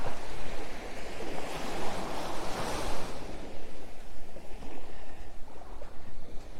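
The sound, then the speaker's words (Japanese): Ocean waves wash onto a beach at Hayama, Japan, at dusk, in a steady roar, one wave swelling and breaking loudly near the middle before settling back into a continuous rushing hiss with a little wind. “夕暮れどきの一番キレイに海が輝く時間帯に、波音をお届け。”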